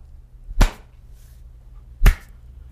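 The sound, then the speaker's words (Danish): Two single, soft hand claps about a second and a half apart, each a sharp, crisp smack that dies away quickly, with near-silence around them and no voices. The claps are a quiet clap test to check audio and video sync on a live stream. “kan, kan vi ikke lige lave... Ah, jeg ved ikke, klaptesten du klap? nok ikke. Sådan en stille klap.”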